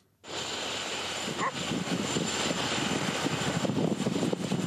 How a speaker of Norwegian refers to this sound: Tett snødrev og økende vind i Svaneldalen, der rundt 50 frivillige fra Røde Kors, Folkehjelpa, Sivilforsvaret og norske redningshunder hadde base i går kveld.